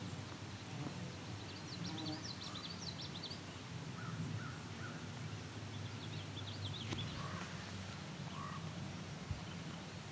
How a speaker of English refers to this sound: There's an indigo bunting just singing now. These two of them. very far away. Yeah, I can hear them both.